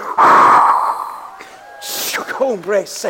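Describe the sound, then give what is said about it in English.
A loud, forceful breathy exhale rushes into the microphone for about a second, sounding like a person imitating heavy breath through the nose, followed by a few brief wavering vocal sounds. “If you get close enough, you can hear the breath of his nostrils.”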